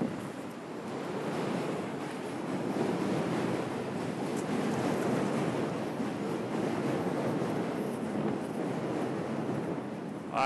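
A steady, dense rumbling roar of a train passing overhead on the Manhattan Bridge fills the whole stretch, mixed with a broad outdoor wash of city ambience as someone walks underneath the bridge in Dumbo, Brooklyn; no one speaks.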